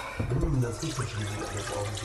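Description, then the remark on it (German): Tap water runs steadily into a pot, water for cooking potatoes, a continuous splashing hiss that fills the short stretch, with a voice murmuring underneath. “Ich setze hier schon mal ein bisschen Wasser für, den, für die Kartoffeln auf.”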